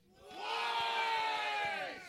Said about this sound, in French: Est-ce que vous aimez ça crier pour rien?